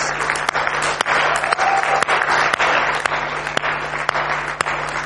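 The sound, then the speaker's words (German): Loud, sustained audience applause at a church gathering for young men who worked on the building, with dense, rapid clapping filling the whole stretch, a few sharper claps standing out, and no talking over it. “Komm, wir geben dir nochmal einen ganz fetten Applaus.”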